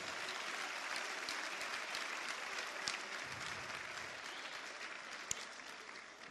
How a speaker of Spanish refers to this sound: Muchas gracias. Fuerte el aplauso, fuerte el aplauso.